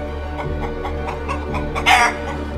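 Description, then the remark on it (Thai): A chicken clucks in a quick, steady series of short clucks, ending with one louder, sharper squawk, over a low background hum. “เมื่อพระองค์ได้ส่องกระจก พระองค์ก็ได้รู้สึกประหลาดพระทัยเป็นอย่างมาก เมื่อได้เห็นไก่ตง จ้องมองมาที่พระองค์”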